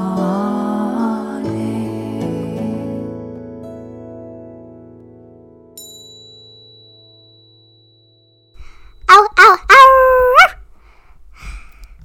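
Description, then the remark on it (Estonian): After fading musical chords, a seven-year-old girl imitates a whimpering puppy with a few short, high, whiny yelps and whines, fairly loud, lasting about two seconds. “tere, kutsukene, oled õige kutsikas.”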